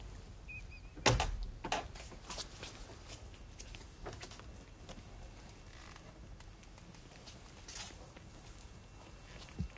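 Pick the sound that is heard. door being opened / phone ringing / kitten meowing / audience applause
door being opened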